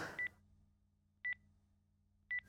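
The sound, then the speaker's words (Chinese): Three short, bright keypad beeps from a mobile phone as it is used to look something up on Baidu Baike, spaced about a second apart, each a crisp dual-tone blip over a low, steady hum. “然后他就用那个手机查那个百度百科，点开那个百度百科，”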